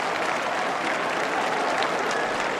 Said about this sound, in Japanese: 大きな拍手が送られます